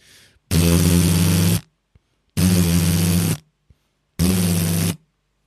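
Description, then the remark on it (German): A person imitates the firing of a Gatling gun with their mouth, making three loud, sustained buzzing bursts of about a second each, separated by short pauses. “Wenn du jemals ja. eine Gatling Gun live schießen hörst,”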